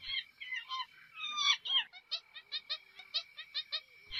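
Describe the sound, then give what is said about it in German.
High-pitched monkey chatter from up in the trees: a jumble of squeaky calls, then a rapid, even run of short shrill yelps, clear with no one talking. “Oh, da oben auf den Bäumen, da sind die Affen.”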